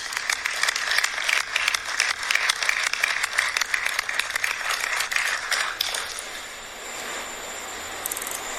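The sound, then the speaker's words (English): A crowd breaks into steady, dense applause for a family being honored, many hands clapping together for several seconds before it thins out and fades, leaving a quieter background with a few scattered claps. “We should clap for the family.”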